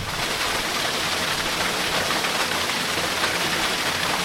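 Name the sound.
water flowing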